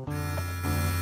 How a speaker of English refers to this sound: Guys, do you hear that sound? That's the sound of power and precision. That's right, you're listening to the Lawnmower 3.0, Manscaped's third generation trimmer featuring a cutting edge ceramic blade to reduce grooming accidents.